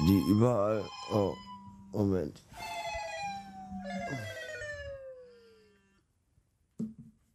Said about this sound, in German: Das war der Wecker, den ich mal eben ausschalte.